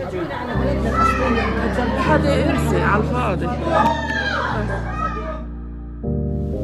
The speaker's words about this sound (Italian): In questo stanzone con il pavimento di marmo e le poltroncine da centro congressi ci sono bambini che giocano, signori vestiti da pagliacci per intrattenerli, palloncini, tatuaggi lavabili